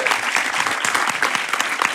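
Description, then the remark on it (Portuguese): Dense audience applause at Parque Laje fills the whole stretch for the people working inside the park. It is a steady wash of many hands clapping at once, fairly loud, with a few voices faintly mixed in. “Então, eu peço uma salva de palmas para todas essas pessoas que estão trabalhando dentro do Parque Laje”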